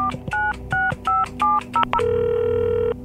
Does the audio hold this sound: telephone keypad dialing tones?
yes